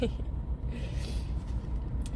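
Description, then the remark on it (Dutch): Steady low engine and road rumble fills the cabin of a moving car, a continuous drone with faint higher hiss drifting in and out. “Tot zover het podcast in de auto.”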